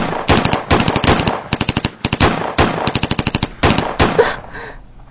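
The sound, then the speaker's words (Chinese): Bursts of rapid automatic gunfire, fired on command at someone hiding inside: loud sharp cracks in quick rhythmic volleys with brief pauses between, ending in a fading echo. No voices. “敬酒不吃吃罚酒，开枪，给我捉活的！”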